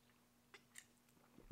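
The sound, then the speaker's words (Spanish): A quiet sip from a drink: a few soft wet mouth clicks and a slurp, then a fuller gulp at the end, with no talking. “doy un trago para darme valor.”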